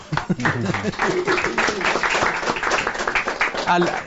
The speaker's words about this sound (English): Applaud.